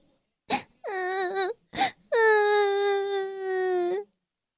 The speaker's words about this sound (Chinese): 米克迷路了，他在大街上迷路了。米克绝望了，他边用叶子擦着毛皮，边哭泣着。